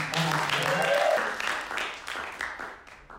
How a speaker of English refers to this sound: So again, I know you've clapped every time. Would you give her some?